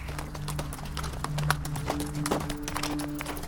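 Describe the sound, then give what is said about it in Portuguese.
Rapid, fairly loud horse hooves clattering at a running pace, with a steady low rumble of a cart rolling along beneath them, without talk. “Chega no momento o cavalo correu com o carro.”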